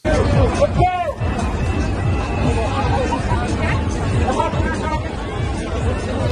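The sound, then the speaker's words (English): A dense outdoor crowd of thousands of protesters, including firefighters in uniform, murmurs and chatters continuously on the streets of Belgium, a broad wash of many voices with a few louder shouts rising briefly above the steady hubbub. “in the past few days, thousands of people gathered on the streets of Belgium. I want you to hear the sounds of it, then I want to explain to you what's happening.”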